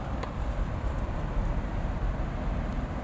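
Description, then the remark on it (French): Steady wind rushes outdoors at night with a deep, continuous rumble and a fairly even loudness throughout, with no voices over it. “Hey, j'entends le vent.”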